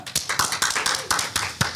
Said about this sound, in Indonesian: Tepuk tangan semuanya ya.